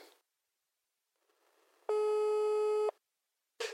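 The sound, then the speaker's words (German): A single loud, steady electronic phone beep lasting about a second, the kind that signals the start of a voicemail recording, preceded by faint line noise and followed by silence. “jetzt muss ich da auf deine Combox schnurren, hä?”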